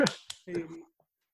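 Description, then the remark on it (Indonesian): A few sharp hand claps, two quick slaps spaced apart, with a short burst of voice mixed in after them before it goes quiet. “gue bangga jadi ini anjir jurnalis keren keren keren keren gue tepuk tangan dari”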